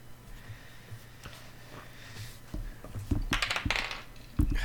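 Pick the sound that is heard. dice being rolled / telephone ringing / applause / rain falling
dice being rolled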